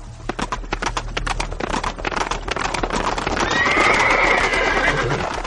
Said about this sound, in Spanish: Retrocediendo sobre nuestros pasos, escuchamos el sonido de los cascos de los caballos. En nuestra retaguardia, Cortés y varios capitanes llegaron a salvarnos de la muerte.